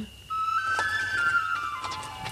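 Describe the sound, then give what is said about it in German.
A breathy flute playing Native American music, coming from a tunnel, holds a long, steady note that steps up slightly in pitch over faint background noise, with no one talking. “Wir haben ja auch hier im Vorgespräch schon ausgelotet, dass auch die Flöten, die man danach hört, so ein bisschen polarisieren.”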